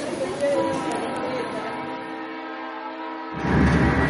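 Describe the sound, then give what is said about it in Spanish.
Steady rumble of a moving train from inside a carriage, a broad continuous roar with faint tonal hum, swelling louder and lower near the end as the wheels rattle harder. “Hacemos esta parte, si quieres, dentro del tren.”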